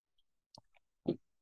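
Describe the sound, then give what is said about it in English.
A voice imitates a man loudly gulping water during a morning meditation: a few small wet throat clicks, then one heavy, low gulp standing out against the quiet. “And I was like, do you need to gulp so hard? Like, you why have- are you gulping your water as if it's 5 a.m.?”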